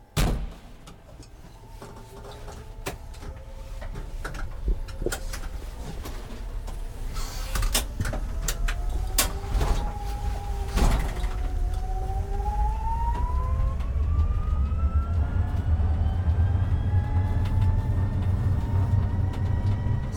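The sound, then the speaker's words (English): A 100% electric truck pulls away and drives, its motor whine rising steadily in pitch over a constant low road rumble, with a few clunks and rattles early on. No one speaks. “Uh, so if you'd like, we can uh, go for a drive in it now if you want.”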